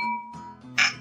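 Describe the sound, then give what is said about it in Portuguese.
Glasses of cachaça clink together for a toast, a bright ringing tone that fades, followed by a sharper, louder clink near the end. No one speaks. “Quero dizer para vocês que o brinde hoje é um oferecimento da cachaça Alma Cabocla.”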